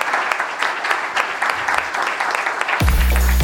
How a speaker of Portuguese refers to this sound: Terminamos com mais uma salva de palmas, só aqui em direto.